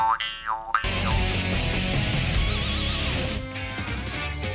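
A jaw harp twangs with springy, wah-like pitch sweeps, briefly alone at first, then continues under a dense, loud musical backing at a steady level with no talking.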